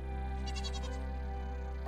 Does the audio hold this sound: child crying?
no